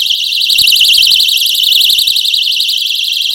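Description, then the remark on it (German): A personal shrill alarm, demonstrated live, shrieks continuously with a loud, piercing, rapidly warbling high tone that wavers up and down without pause, dominating, with no speech. “Der Drillalarm hier mal im Live-Einsatz.”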